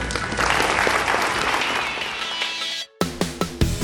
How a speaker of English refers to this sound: Join me in a round of applause for Nancy Reagan.